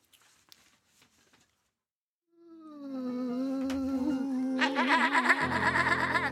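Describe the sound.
A voice on NRK P1 radio practising artist-style throat singing: a sustained, warbling sound, starting low and steady, then breaking into a harsh, buzzing, overtone-rich wail. Loud, after a couple of seconds of faint noises.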